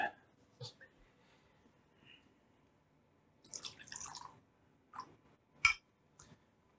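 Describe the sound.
Viking scotch whisky is poured into a glass in a short, splashing gurgle, framed by a few light drips and sharp glassy clinks. A faint murmur of voices sits underneath.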